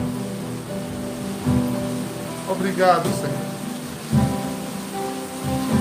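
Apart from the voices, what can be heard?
rain falling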